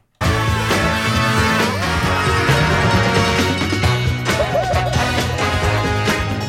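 A full band plays a loud, dense rock passage with steady drums and layered guitars, a wavering melodic line rising above midway through, continuing without pause to the end.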